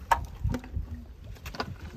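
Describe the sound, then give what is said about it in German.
People scoop water from a river because they have no water supply in their high-rise buildings: a few uneven splashy sloshes and bright watery dips, with low rumbling movement between them and no talking. “Das äh, Geräusch, wie Menschen Wasser aus dem Fluss schöpfen”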